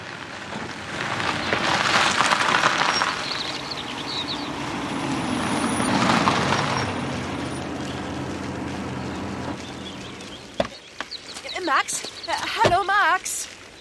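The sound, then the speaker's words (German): Two cars drive one after the other, a short time apart, into a farmyard, their engines and tyres crunching over gravel as each swells and fades, followed by a brief voice at the end. “fahren einige Zeit später nacheinander zwei Wagen in kurzem Abstand auf unseren Hof.”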